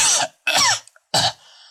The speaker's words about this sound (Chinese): 杨康一个劲的咳嗽。